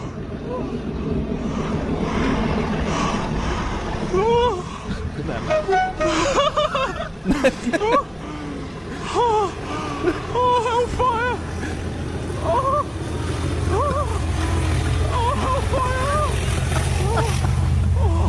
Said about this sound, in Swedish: Very soon, two class 37s will be thrashing up this snaky incline. So I'm hoping for some tones and plenty of thrashing.